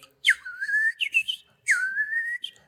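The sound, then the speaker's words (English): A person whistles an imitation of a quail alarm call, heard when a threat comes upon quail: two sharp rising phrases, each dropping then sliding upward into a sustained tone with chirpy flourishes, clear with no talking. “I often say that there's a first lieutenant in the covey, and when a particular threat comes upon quail, you'll hear that.”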